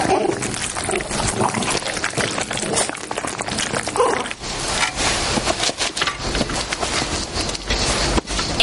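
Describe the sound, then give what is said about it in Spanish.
A dog wolfs down dessert from its bowl inside a house, a loud, continuous stream of wet smacking, crunching and clicking with no pauses and no voices. “mientras el perro devora el postre en su comedero dentro de la casa.”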